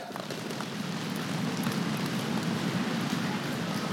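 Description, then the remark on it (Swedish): A crowd in a hall drums rapidly with their hands on surfaces, a dense, steady pattering that imitates the clatter of galloping horses, sustained and fairly loud throughout with no speech. “Israels folk börjar höra att det galopperar efter dem. Kan vi inte göra så i hallen? Allihopa gör så här.”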